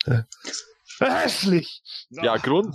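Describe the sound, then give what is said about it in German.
A single sharp sneeze bursts out in the middle of a short stretch of conversation, with people talking just before and after it. “Ja, Gesundheit.”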